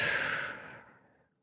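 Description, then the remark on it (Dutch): A single slow, deep exhale, breathy, beginning full and airy then gradually tapering off into quiet over about a second, with no talking, during a guided relaxation breathing exercise. “Adem dan in en uit.”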